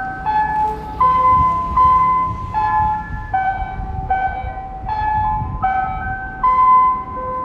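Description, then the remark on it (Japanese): A five o'clock town chime rings out nearby, playing a slow electronic melody of sustained, bright tones that step up and down in pitch, loud and steady with no one talking. “待って5時の鐘が鳴った”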